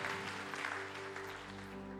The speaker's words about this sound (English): Let's just clap our hands and thank you for that.